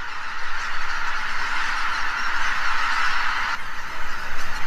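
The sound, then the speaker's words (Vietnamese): A huge flock of about 100,000 teal ducks, each 30 to 40 cm long, calls all at once, a dense, continuous chatter of overlapping voices that swells slightly toward the end, with no single bird standing out. “Đàn mong kết bay can tham gia vào một cuộc đi săn tập thể khoảng 100.000 con mỏng kết.”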